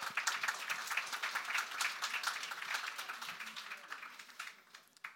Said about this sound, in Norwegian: Jeg syns vi skal gi det en liten applaus med en gang.